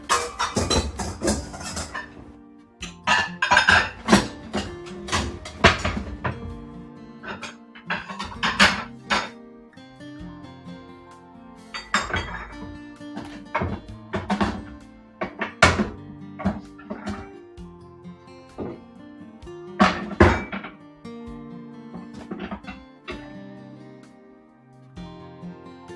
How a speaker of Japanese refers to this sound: はい、今ね、洗い終わった食器をしまいました。出しっぱなしになってたから、しまわないとですね。